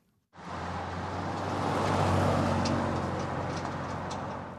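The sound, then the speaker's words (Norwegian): A few cars drive by on a quiet town-centre street in the small town of West, Texas, engine rumble and tyre hiss swelling to a peak midway and easing off again, with no voices. “Noen få biler bryter stillheten her i sentrumsgatene til småbyen West i delstaten Texas.”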